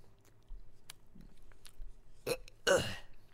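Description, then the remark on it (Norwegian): Someone gags while eating a half-fine, half-coarse hybrid bread roll: quiet chewing, then a short sharp throat burst and a louder, strained retching heave near the end. “Hører du sitter og brekker der?”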